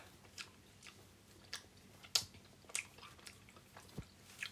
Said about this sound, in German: Voll leicht zum Kauen. Coca-Cola-Geschmack.